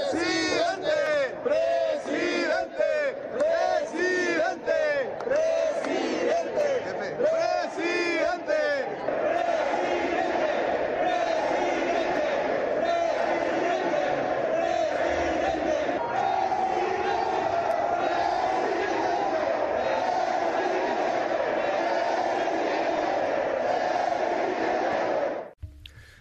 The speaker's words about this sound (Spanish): Bueno, era su evento, ni modo que no le gritaran presidente. Llevaba a sus simpatizantes.